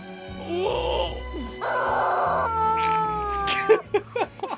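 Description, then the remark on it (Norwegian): A Squeeze Me Chicken rubber chicken toy squawks in long, strained honks, two drawn-out squeezes then a wavering wail trailing into short choppy squeaks, loud with no talking. “Oh, yes, det er intenst. en Squeeze me chicken.”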